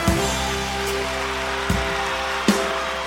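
A crowd applauds in a steady, dense wash of clapping, with sustained musical tones humming underneath and a few sharper accents cutting through at intervals.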